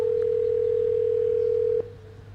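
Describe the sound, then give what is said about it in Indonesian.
A phone call's ringing tone as Google Assistant calls a restaurant to book a table: one steady, clear electronic tone holding for nearly two seconds before cutting off abruptly, with a faint low hum underneath and no voices. “Google Assistant yang bisa nelpon si pemilik bisnis untuk bookingin kita”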